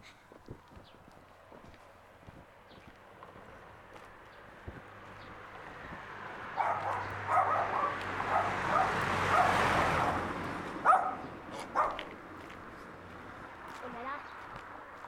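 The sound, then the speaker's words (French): A dog barks in short repeated bursts on a street during a walk, partly masked as a passing car swells and fades in the outdoor background. “Il y a un chien qui aboie et qui a oublié de mettre un masque.”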